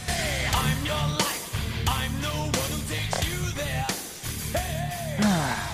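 A loud heavy metal music bumper plays continuously: dense, distorted guitars and pounding low end under a shouted, soaring vocal line, with no speech over it.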